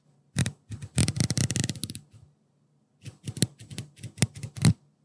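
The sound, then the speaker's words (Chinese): Fingers, not fingernails, plucking along the teeth of a comb that was handed out at a haircut: quick bursts of crisp, dry ticking clicks in two runs, a dense rattling sweep first, then a sparser series of sharp individual plucks after a pause. “答对，这个就是手拨梳子的声音。”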